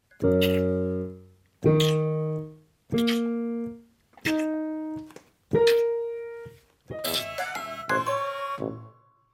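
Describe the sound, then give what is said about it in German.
A musical instrument portrays a frog: five separate struck notes climbing in pitch, each ringing out and fading, then a busier, jangling flourish of overlapping tones. No one speaks. “Natürlich vollkommen richtig, der Frosch.”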